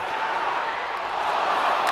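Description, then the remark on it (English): A crowd roars in celebration after a goal, a dense, steady wash of cheering voices that holds at a constant level for the whole two seconds, with no single voice standing out. “Like a soccer crowd when they scored.”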